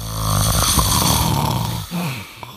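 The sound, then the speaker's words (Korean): A person snores in one long, loud, raspy inhale that rattles for nearly two seconds, then trails off into a shorter, softer throaty rumble. No one speaks. “자, 이 오늘 보물소리는 코가 오는 소리입니다.”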